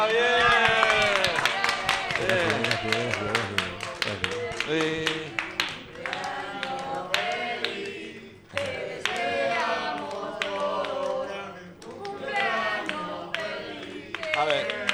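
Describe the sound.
A round of applause for a man's 69th birthday: dense, irregular clapping that keeps going steadily, mixed with several raised voices and cheers throughout.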